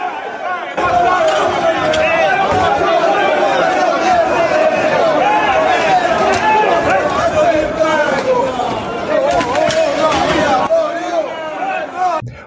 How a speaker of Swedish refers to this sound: Det var obehagliga scener när domare Anthony Taylor lämnade Budapest flygplats igår. Lite av tumultet framgår här när Roma-fans attackerar med glåpord, öl, spottloskor och även en stol. En del skrek att han skulle dö.